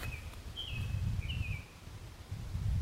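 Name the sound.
birds singing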